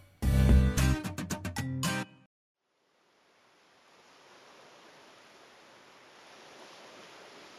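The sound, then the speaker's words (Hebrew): A short burst of loud, chiming music opens, cuts to silence, then a soft, steady roar of ocean waves on a remote beach in Britain fades in and continues. “בחוף ים נידח בבריטניה בתחילת שנות התשעים של המאה ה-20”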